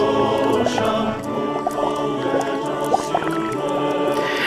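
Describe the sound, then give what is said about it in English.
A pan of water holding a piece of brain tree and a chunk of bronzite chondrite, boiling for two weeks, bubbling and gurgling steadily, with small pops and drips breaking the surface over a continuous simmering wash. No one speaks. “The cooking time can vary, this one has been boiling for two weeks.”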